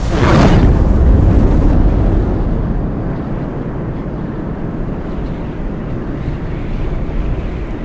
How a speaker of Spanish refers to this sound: arde un fuego arrasador, arden los restos de árboles, el fuego se extiende.